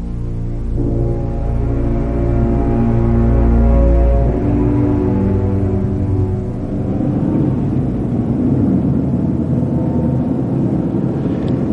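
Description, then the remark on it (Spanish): A car cruises steadily along a highway on a splendid summer morning, its engine a loud, continuous low drone with a humming pitch that shifts slightly as it rolls on. No voices are heard. “En una espléndida mañana de verano, un coche se desplaza por la autopista.”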